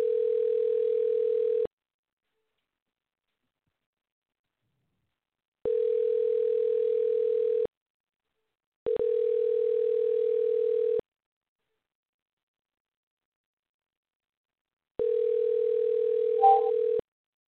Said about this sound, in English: Okay, the phone is ringing.